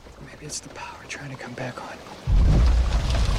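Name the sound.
rain falling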